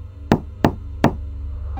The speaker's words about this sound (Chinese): 才走进家门呢，丽丽就听见了一阵敲门声，很清晰。